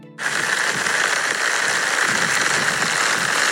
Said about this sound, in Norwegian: Eh, og jeg, altså, jeg brukte jo paraply i dag tidlig da det hølja ned. Jeg er fortsatt eh, klissvåt. Du kan få høre hvordan det hørtes ut når jeg gikk på vei til jobb i dag. Det her er altså lyden av regnet som treffer paraplyen min.